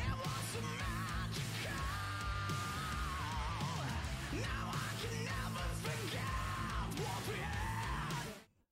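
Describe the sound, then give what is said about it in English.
A rock singer belts out screamed yet melodic vocals with a rough, gritty edge, sustained and loud over a dense band backing of guitars and drums, cutting off abruptly at the end. “he kind of calms it down where you know he still had the little rough edge to it and then he gets into the screaming mode where it's, screaming but it's still melodic kind of got that little uh, rough edge to it”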